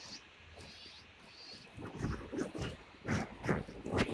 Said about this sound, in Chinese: 小的，听那个声就是小的灰喜鹊叫的声。这时候它小的出来出巢了，所以这个时候就喂的时间要长一些。